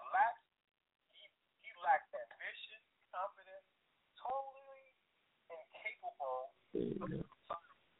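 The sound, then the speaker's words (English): A voice over a narrow, tinny phone line cuts in and out in choppy bursts, with abrupt dropouts and a harsh crackly patch near the end as the call breaks up. “phone is breaking up.”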